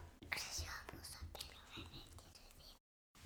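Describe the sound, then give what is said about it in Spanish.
A child whispers a secret to an adult rather than into the microphone, soft breathy hissing sounds running continuously for a few seconds before a brief silence. “No, decilo acá, a mí no, porque si me dices en secreto no te escuchan quienes están escuchando esto.”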